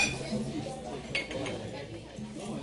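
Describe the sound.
Busy literary café ambience with a low murmur of voices and scattered clinks of dishes, cups and cutlery, including a brighter clink about a second in, all at a moderate, steady level.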